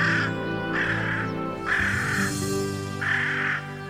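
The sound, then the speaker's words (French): A carrion crow in Paris gives four harsh, rasping caws at an even, unhurried pace, fairly loud, with a low steady hum or music bed underneath. “Aujourd'hui, la corneille noire.”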